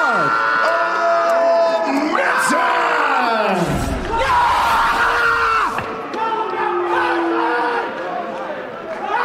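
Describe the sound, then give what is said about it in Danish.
A loud, sustained crowd roar at a boxing match after the announcement of a three-round split-decision win for the undefeated Olympian Mark Olmsson, dense with overlapping yells, whoops and cheering that swell and stay intense for the whole stretch, with scattered voices shouting above the din. “Der var, øh, der var brøl på.”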